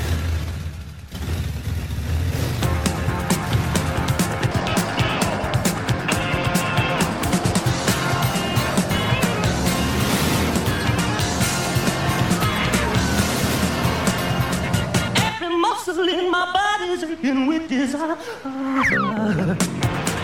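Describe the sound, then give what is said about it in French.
A car drives along with a steady, loud engine roar and tyre noise for most of the stretch, dropping away near the end as voices briefly come through. “en voiture, on aurait pu hein dire en voiture Simone, mais on va dire en voiture Siméon”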